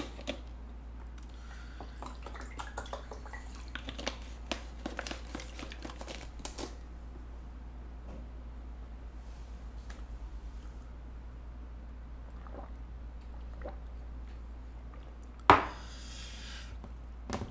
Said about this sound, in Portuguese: Deixa eu só tomar um copo, um copo d'água aqui porque tá. Oh, sequei.